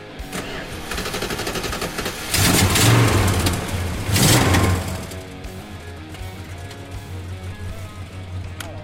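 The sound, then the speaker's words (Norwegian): A black 1966 Chrysler Newport's engine rumbles low and steady, then revs hard twice in quick bursts, loud, before settling back to a throaty idle, in Volda. “en svart Chrysler Newport 1966-modell, eller som jeg ville ha sagt, en stor amerikansk bil, blir plukka opp i Volda av rånerne Markus Drabløs og Mathias Brunstad.”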